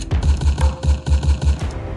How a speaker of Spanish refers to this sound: y el tableteo de las ametralladoras.